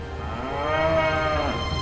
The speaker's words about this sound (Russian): Кто-то другой громко мычал.